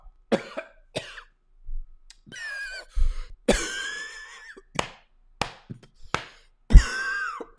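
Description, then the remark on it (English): A person coughs repeatedly and harshly, with strained, raspy gasps and throat-clearing between bursts, choking on a protein chip while eating. Loud, in irregular fits with no talking. “We're about five minutes into the podcast, and I haven't talked about anything yet, except for chips and choking.”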